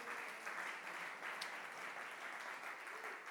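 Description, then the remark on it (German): Sustained applause from a church audience at Ecclesia in Nürnberg, Germany, given for their friends in Erlangen. A dense, even wash of clapping holds steady throughout, without pauses or voices breaking through. “Hey, komm, e-, Ecclesia hier in Nürnberg, komm, lass uns mal unseren Freunden in Erlangen mal einen riesen Applaus geben.”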